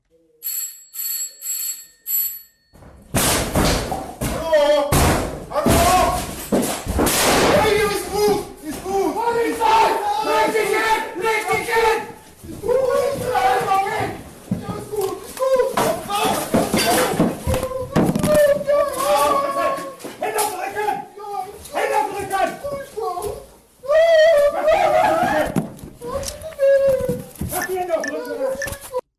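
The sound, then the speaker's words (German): A chaotic raid as a German special police unit (SEK) storms a man's apartment and arrests him, whimpering but without resistance: several men shouting forcefully and overlapping, loud, with thuds and commotion throughout, after a brief ringing electronic tone at the start. “Wir hören also, wie das SEK seine Wohnung stürmt und ihn wimmernd, aber ohne Widerstand festnimmt.”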